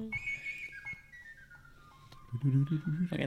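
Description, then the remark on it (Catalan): A thin, high whistled or flute-like sardana melody drifts steadily downward for a couple of seconds, fairly quiet, before voices come in over it near the end. “I ara sona una sardana molt maca.”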